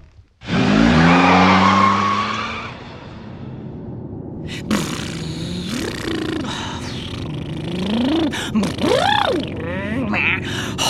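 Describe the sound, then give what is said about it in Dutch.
A car pulls away with a sudden loud roar and tire noise, then settles into a steady engine rumble that continues for several seconds, with rising and falling tones over it. “autorijden, dat is ook zo'n non-activiteit.”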